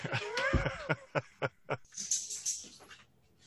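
A dog whines with a rising, tonal cry, then gives a quick series of four or five short yelps or huffs, followed by a breathy, snuffling rasp that fades out, while its owner tries to get it under control.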